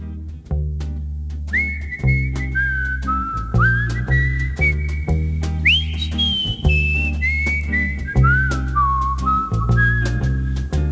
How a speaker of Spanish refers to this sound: precisamente el tema que vamos a escuchar es